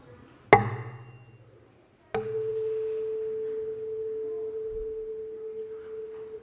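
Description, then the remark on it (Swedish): A tuning fork tuned to A on an empty resonance box, in a demonstration of resonance: a sharp strike, then a knock as it touches the box, followed by a steady, pure mid-pitched tone that rings on for several seconds. “Stämgaffelns svängningar som är osynliga för ögat men hörbara för våra hörselorgan fortplantas när jag placerar det på min tomma låda, en resonanslåda, in i lådan och finns också där.”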